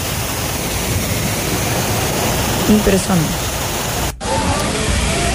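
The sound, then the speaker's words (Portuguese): A loud, steady roar of floodwater rushing down a sloping street like a waterfall, swirling like open sea, fills the whole recording, with one brief spoken word partway through and a momentary cut near the end. “Parece uma cachoeira, você vê que é na parte de cima que a rua sobe, tem a parte de baixo, o, o, o, nem os ônibus se atrevem a passar ali. Água descendo, rodando como se fosse um mar aberto.”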